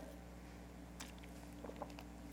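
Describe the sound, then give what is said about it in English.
A person pauses a Bible reading to take a quick swig of water, with faint mouth clicks and a soft gulp or two over a low steady hum, ending in a brief louder click. “I'm just going to grab a swig of water.”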